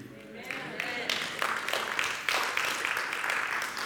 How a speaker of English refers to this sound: Thank you for the golf clap. Some golfers in the room.